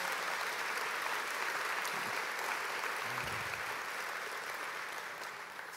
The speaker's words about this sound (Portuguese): Pode dar uma salva de palmas a Jesus.